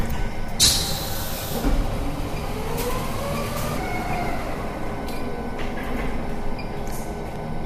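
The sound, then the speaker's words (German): A steady mechanical rumble with a rising and falling motor whine as heavy X-ray imaging units move back into place, continuous, with no talking. “Dann fahren die Röntgengeräte wieder zurück.”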